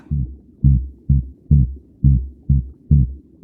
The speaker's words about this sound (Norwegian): Det siste der, det er lyden av en eh, vårkåt torsk. De snakker til hverandre på sitt helt eget kryptiske språk.